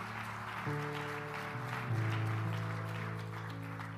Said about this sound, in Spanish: Dale un fuerte aplauso a Jesús fuerte, fuerte ese aplauso.